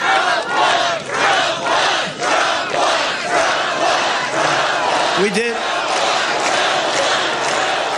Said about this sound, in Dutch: Trump won wordt hier gescandeerd en Trump beaamt dat natuurlijk. Dit was in Iowa, de staat waar kandidaten graag hun teen even voorzichtig in het water steken om te voelen hoe warm eh, het eigenlijk is daar.